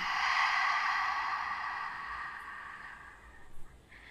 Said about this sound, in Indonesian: Kita perhatikan nafas, ambil nafas panjang melalui hidungnya. Buang nafas melalui mulutnya.